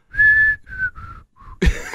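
Someone whistles the theme tune from The Andy Griffith Show, a short, bright tune: one long held note followed by three shorter ones, with brief gaps, before a sudden noisy burst cuts in at the end.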